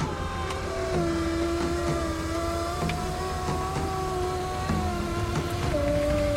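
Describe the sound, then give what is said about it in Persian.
A car engine hums steadily as the car is started and driven off, its pitch rising and dipping as it revs while driving, with no talk over the continuous drone. “شروع کردم به روشن کردن ماشین و حرکت کردم”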